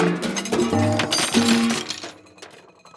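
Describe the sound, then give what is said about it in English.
Metal frying pans clatter and clink as someone rummages through a cupboard, with a burst of busy knocking and scraping for about two seconds before it trails off into quiet. “I wonder where the frying pans are.”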